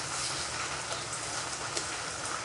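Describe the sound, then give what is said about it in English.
Lithium metal fizzing in water, a steady, dense crackling hiss that stays even throughout, with a few faint sharper pops poking through and no voices. “We all know what happens when lithium metal gets wet. It does this.”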